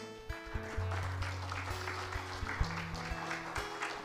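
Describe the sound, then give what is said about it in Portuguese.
A church audience claps steadily for several seconds, applauding the Lord after a prayer, a dense wash of applause from many hands, with sustained keyboard or organ chords playing underneath. “Aplauda o Senhor.”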